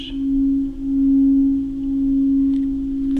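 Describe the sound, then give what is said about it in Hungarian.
A small heart singing bowl being rubbed, producing a steady, sustained ringing tone that swells and wavers gently in loudness without breaking, with no talking. “Így szól, hogyha megütjük, és ha elkezdem dörzsölni, akkor egy folyamatos.”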